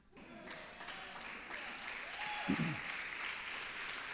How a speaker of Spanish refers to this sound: Eso merece un mejor aplauso.